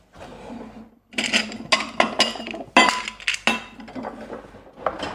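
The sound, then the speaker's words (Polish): A second bowl is pulled from a stack and set down while preparing a miso paste, with a series of sharp ceramic clinks and clatters over a few seconds, fairly loud, with no talking. “Okay, to wezmę drugą miskę.”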